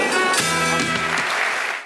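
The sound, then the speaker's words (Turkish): Dense, steady applause from a large audience at an award ceremony as the winners, İsmail Küçükkaya and the show Çalar Saat, are called up, loud and continuous, with a faint tonal voice or music briefly audible beneath before the clapping begins to fade. “Ve kazanan İsmail Küçükkaya ile Çalar Saat alkışlarla kendisini buraya alıyoruz.”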